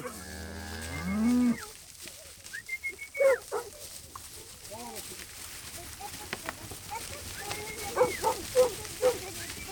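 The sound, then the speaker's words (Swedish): Cattle being herded on pastureland in Sörmland, Sweden, during the daily move of the cows to a new pasture, with a long, loud moo at the start and scattered shorter calls, a dog yelping and whining, and people's voices calling out over the shuffle of the herd. “genomför den dagliga koflytten.”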